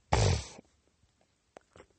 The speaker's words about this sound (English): like these nose sniffles I'm having right now, and the um, fucking eye rubbing competition I have